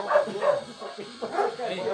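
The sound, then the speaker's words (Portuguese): A dog barks and yips in a quick series of bursts, about five in two seconds, moderately loud, with people talking around it. “Pega a porra do cachorro, já ganhou”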